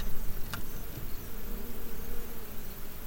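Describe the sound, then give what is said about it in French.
A steady, dense drone of many honeybees buzzing around the hive, continuous, with a brief sharp click near the start and no voices. “Là, les abeilles euh, on travaille euh, sur euh, toutes les fleurs qui ont précédé.”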